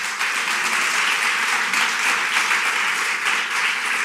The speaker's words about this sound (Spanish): ¿Cuántos dicen un fuerte amén? denle un fuerte, un fuerte aplauso.